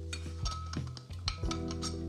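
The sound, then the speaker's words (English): Milk is poured into a glass for a homemade smoothie over about two seconds, with a low, wavering gurgle and a few light glassy clinks. Nobody speaks. “So I'm gonna put some of that in my glass as well.”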